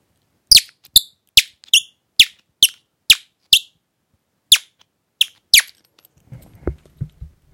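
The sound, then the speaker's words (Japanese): A bird call whistle blown to mimic and answer birds' chirping, in a series of sharp, high chirps, about a dozen quick squeaky bursts in an uneven rhythm, fairly loud, then a soft low rustling at the end. “鳥の、こう、ピピピになったら、キキキってこう鳴らすんですよね。”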